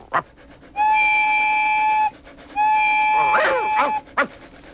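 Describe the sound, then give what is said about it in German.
A toy locomotive named Felix gives two long, steady, high-pitched whistle toots, with short yelping sounds around and between them. “Ist das etwa meine Lok?”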